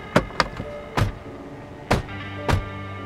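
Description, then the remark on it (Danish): Car doors slam five times at uneven intervals, two in quick succession and then three more spaced out, each a sharp thud over a steady low hum with no talking, as a Volvo stops at a place by Gendarmstien in a forest. “Og der kan man de så høre øh, observatørerne bildørene smækker og sådan noget.”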